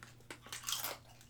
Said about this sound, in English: no, you can't slow crunch on the chips.